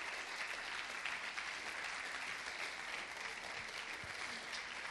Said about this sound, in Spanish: Y también, como somos alguien, queremos darles un fuerte aplauso para también tener una transición al siguiente número musical.